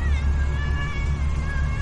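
A cat meows in a long, drawn-out wail that wavers in pitch, sustained and fairly loud over a low rumbling background hum.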